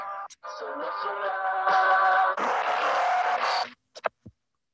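A short burst of a band's new song with full, sustained instrumentation plays loudly for a few seconds, then cuts off abruptly, followed by a couple of brief clicks.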